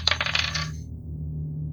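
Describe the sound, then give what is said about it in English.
A die drops off a table and clatters across a hard surface, a quick flurry of sharp bright bounces that settles within a second, leaving a low steady hum. “We start with a seven. It fell off the table.”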